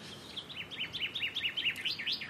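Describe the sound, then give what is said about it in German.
Birds chirp and sing in a quick, repeated series of bright, high notes, moderately loud over a soft outdoor background hiss, with no voices. “hat den Vögeln zugehört”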